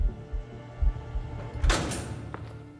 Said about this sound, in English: His entourage of guards took him through one last secure door. Stephen steeled himself as it swung open.